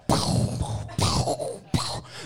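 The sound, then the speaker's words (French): A voice imitates cannon fire from a pirate ship with three forceful, breathy bursts from the mouth, each an abrupt booming blast that trails off, spaced roughly a second apart, with no other talk. “je vois un bateau pirate derrière nous qui arrive pour nous tuer. Bruit de canon.”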